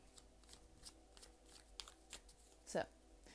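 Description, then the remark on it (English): Tarot cards being shuffled for a reading, a quick series of soft papery riffles and snaps with a louder burst near the end, recorded quietly with faint background hum. “Throughout this reading, I cannot guarantee that you will hear me shuffling the whole duration of this, this time, but based off of faith, we will go from here.”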